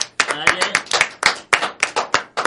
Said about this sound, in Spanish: Ya eh, bueno, le damos un fuerte aplauso para el video que mandó en los mobileros.